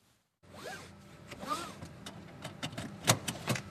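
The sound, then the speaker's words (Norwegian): A car seatbelt is drawn out with a few quick rasping zips of webbing, then snaps into the buckle with a sharp click and some rattling, with faint background rumble. “Et bilbelte blir festa og med ny teknologi får du ikke starta bilen uten at beltet er på.”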